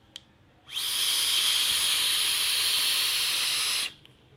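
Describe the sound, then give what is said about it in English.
A loud, steady airy hiss of air being drawn through an atomizer with its two extra air holes opened, rushing and turbulent, lasting about three seconds before cutting off sharply. No voices. “I like not using those because using those it becomes um, just too airy and loud and turbulent for me.”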